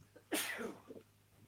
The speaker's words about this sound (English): Wow. Bless you. Thank you.